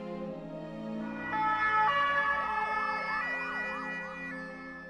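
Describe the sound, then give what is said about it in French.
An ambulance siren wails in a rising and falling sweep, layered over steady high tones and a low rumble of traffic, moderately loud, with no voices. “Il est évacué en ambulance.”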